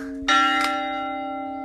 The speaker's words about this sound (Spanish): y hace clac cada vez que le toca. Hay dos campanas, una más grande y otra más pequeña. Las estáis notando en el, en el, en el sonido.